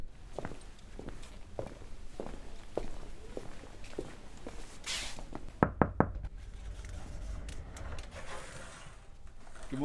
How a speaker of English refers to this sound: She's in her office now. We're going to go and knock on her door and have a look.